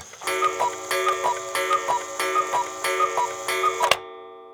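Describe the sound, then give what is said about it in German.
A short cuckoo clock jingle introducing an events segment: steady ticking runs under bright chiming tones in a regular rhythm, loud, then cuts off sharply with a brief ringing tail. “Du weißt gar nicht, wie ich mich freue, wieder dieses Kuckucksgebimmel zu hören, weil wir so lange keine Termine empfehlen konnten.”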